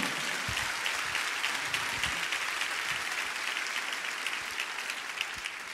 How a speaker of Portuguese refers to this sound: Alguém pode dar um glória a Deus aqui? Okay? Aplauda o Senhor aí, meu irmão.